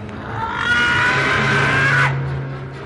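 An old witch, tripping as she puts her head into an open oven, lets out a tremendous, furious scream: one harsh, sustained shriek lasting well over a second before cutting off abruptly, with a low rumbling noise underneath and no speech.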